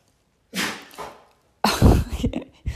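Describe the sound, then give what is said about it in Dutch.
A dog sneezes in the background in a few short, explosive snorts: two quick bursts, a pause, then a louder cluster of wet sneezes and snuffles. “Je, je hoort nu mijn hond niezen op de achtergrond.”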